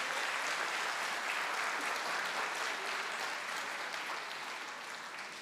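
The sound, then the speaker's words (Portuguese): Sustained applause from a church audience clapping for the disciples, a dense crackle of many hands clapping steadily throughout, tapering slightly toward the end with no talking over it. “Pode sentar os discípulos de Jesus, vamos aplaudir pelos discípulos.”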